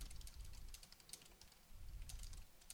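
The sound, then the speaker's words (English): Rapid, irregular clicking of keys on a computer keyboard, fairly quiet, with a low rumble underneath and no voices. “Keep going, the Ripper, because I'm typing.”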